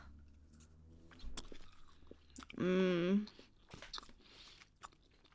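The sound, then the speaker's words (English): Crunching bites and chewing of an original dark chocolate peanut chew candy, a few sharp clicks and moist smacks, with a loud appreciative hum partway through and some quiet talking around it. “Let's try it. Try this peanut chew.”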